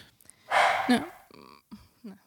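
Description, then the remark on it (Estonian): A puppy gives a few short, breathy barks and yips: one rough, noisy burst followed by two brief higher-pitched yelps, with short pauses between them and no talking. “kutsu haugub.”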